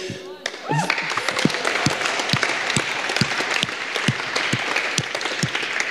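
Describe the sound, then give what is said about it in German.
An audience in Erfurt claps steadily for several seconds for the Walk for Freedom against human trafficking and slavery, a dense crackle of many hands with some sharper, regular beats standing out. A brief voice is heard at the very start before the applause swells. “Und manche denken, warum klatschen wir?”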